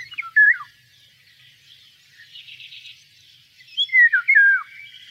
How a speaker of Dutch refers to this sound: En dan ga ik even laten horen hoe de wielenwaal klinkt.